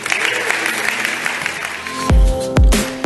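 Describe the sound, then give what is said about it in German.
After a prayer, a crowd gives God a big round of applause, clapping and cheering steadily in a dense wash of sound, with deep booming thumps and sustained musical tones coming in near the end. “Hey, lasst uns Gott einmal einen großen Applaus geben.”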